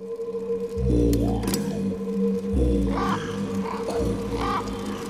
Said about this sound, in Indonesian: Eh, eh, suara apa itu yo? Loh, iya suara apa itu ya? seperti suara burung, tapi aku tidak tahu burung apa.